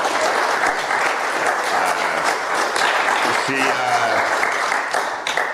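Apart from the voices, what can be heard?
audience applause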